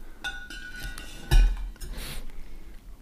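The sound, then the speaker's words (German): A glass wine bottle of rosé clinks with a brief ringing tone after pouring, then is set back into the wine cooler with a dull thud, followed by a soft rattling shuffle. No one speaks. “Und, ja, und stell, stell den mal zurück in den Kühler.”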